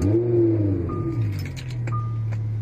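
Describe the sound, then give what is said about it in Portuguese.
A car engine turns over and settles into a steady idle hum, with a few faint metallic clicks and short electronic beeps over it, as the car is started by fingers from a bionic arm placed in the ignition. “ele simplesmente coloca os dedos na ignição do braço biônico e o carro liga.”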